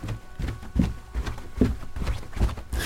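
Footsteps descending stairs down into a cellar: about seven heavy, hollow thuds in a steady, unhurried rhythm, moderately loud, with no voices.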